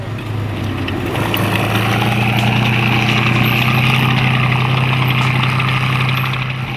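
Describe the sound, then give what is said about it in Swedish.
A World War II tank's heavy engine rumbles steadily at a low pitch with a strong droning hum and a gritty mechanical rattle on top, loud and unbroken throughout, with no voices. “Den vrålande tunga järnkroppen tryckte ner bilarna till skrynkliga, oigenkännliga plåtar.”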